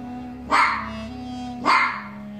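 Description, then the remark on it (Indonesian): A desert fox standing on large rocks gives two sharp, loud barks like a wild dog's, about a second apart, each a short rough burst over a faint steady low hum, with no one talking. “Rugu Baga berdiri di atas batu-batuan itu dan mulai menyala. Suaranya seperti anjing liar.”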